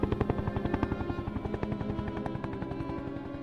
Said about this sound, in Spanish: La Royal Air Force lanzaba 21 bombas de 500 libras sobre el aeropuerto de Puerto Argentino y helicópteros británicos operaban contra Puerto Darwin.